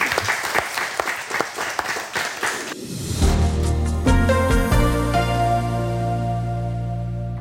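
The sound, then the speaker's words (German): The audience of a live panel discussion in the workshop hall of the Lukas Group in Königsbrück applauds with dense, steady clapping for about three seconds, then a loud music track with sustained tones and a strong bass line fades in and takes over. “Jetzt können Sie sich selber nochmal applaudieren.”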